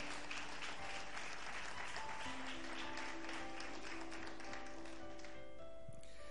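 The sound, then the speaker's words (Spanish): An audience bursts into sustained applause, a dense, steady wash of many hands clapping at once, loud and continuous throughout, with faint tonal hums running underneath and no speech. “Aplaude al momento en que el Señor venció.”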